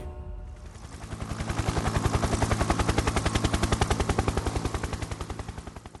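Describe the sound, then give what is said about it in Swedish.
A helicopter's rotor chops rapidly and steadily, a loud, rhythmic thudding that builds as it lifts off at 05:48 with robbers and sacks full of money aboard, then begins to ease slightly as it flies away. “Säckarna är fulla med pengar och männen är nu tillbaka i helikoptern. Helikoptern lyfter och flyger iväg.”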